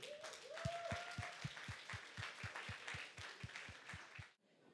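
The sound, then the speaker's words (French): An audience stands from their chairs at an evening gathering to welcome a guest speaker, applauding steadily for several seconds with a broad wash of clapping and a regular rhythmic beat underneath, plus a brief rising whistle early on, before cutting off abruptly. “Lève-toi de ta chaise et applaudis”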